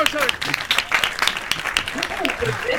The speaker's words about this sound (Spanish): ¡Aplausos!